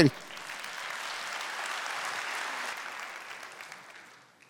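Sustained audience applause, a dense, steady wash of clapping hands that holds for several seconds before gradually tapering off. A brief vocal sound appears at the very start.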